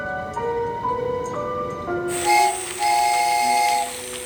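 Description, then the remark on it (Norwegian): A toy train whistle toots in a couple of bright, steady blasts with layered tones, starting over a soft tonal background and ending with a hissy, breathy edge. No one speaks. “Hun våkner av at leketoget tuter.”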